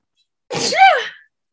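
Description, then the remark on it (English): A single loud sneeze bursts out after a moment of silence: a sharp breathy blast followed by a voiced, rising-and-falling tail, then quiet. “bless you.”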